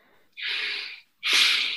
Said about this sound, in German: Tiefer, wir atmen tiefer ein und das ist vielleicht sogar mit einem kleinen Seufzer verbunden